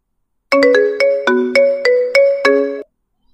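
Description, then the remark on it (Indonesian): A phone ringtone plays a short bright melody of about seven quick tonal notes in a steady rhythm, loud, with no voices, then stops abruptly, before a phone call between two people in different cities. “Namun pada episode kali ini, kami bakalan ngobrol via telepon karena jarak yang memisahkan Ya benar banget, kami beda kota”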